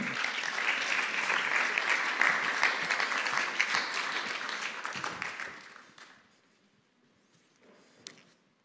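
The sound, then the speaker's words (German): An audience applauds to welcome two guests at a talk on transformation in crisis, in a dense, steady wash of clapping that holds strong for about five seconds, then thins out and fades, leaving a few scattered claps near the end. “Heißt sie doch mal ganz herzlich willkommen.”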